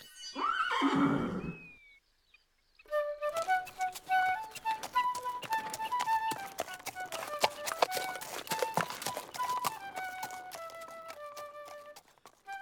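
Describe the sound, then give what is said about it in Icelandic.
A horse gives a loud whinny, then after a brief pause hooves clip-clop in a steady rhythm as the horse is taken on a journey, beneath a simple, stepping melody that carries on to the end. “Svo gengu þeir alla leiðina heimaftur, fengu hestin og kláruðu svo ferðarleið.”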